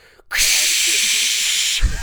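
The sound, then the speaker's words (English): A voice imitates the steady rush of hissing water from a leak in a laundry room, a bright, loud continuous hiss held for about a second and a half after a brief pause, then breaking off. “it sounds like somebody has a faucet that's open and is just spilling out water”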